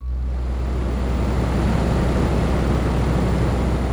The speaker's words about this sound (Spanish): le pido que apague el aire acondicionado del despacho en el que nos encontramos para escucharla mejor.